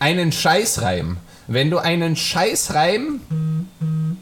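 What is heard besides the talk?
mobile phone notification sound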